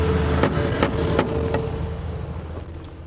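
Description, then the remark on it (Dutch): A door knocker on the door of a hotel pension strikes four times in a steady, evenly spaced rhythm, each knock sharp and solid, over a constant low rumbling background that carries on after the knocking stops. “Zullen we eens proberen of we binnen kunnen komen? Nou, dit zit op een klopper.”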